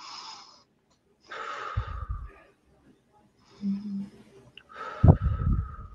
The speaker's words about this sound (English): So step one would be to really dial in the breathing to make sure that you're breathing in through your nose, letting your stomach expand and contract as opposed to your, ch- like right now, I'm breathing very deeply.